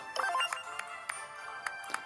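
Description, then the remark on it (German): A bright, chiming video game sound effect of a clapping emote pin, with a cluster of sparkly tones at the start, followed by a series of sharp, evenly spaced clap-like clicks, fairly loud with no talking. “Das ist der Sound von diesem Klatschpin.”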